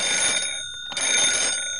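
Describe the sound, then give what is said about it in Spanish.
A telephone rings with a bright, steady metallic trill, two bursts split by a short pause, loud with no one talking. “que te hace hablar es el teléfono.”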